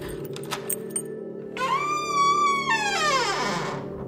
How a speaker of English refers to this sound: Corncob takes the key, slipping it easily into the, the, the deadbolt lock on the door, pulls the handle, and opens it.